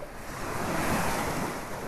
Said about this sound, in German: Ah, Meeresrauschen. Eine Welle nach der anderen.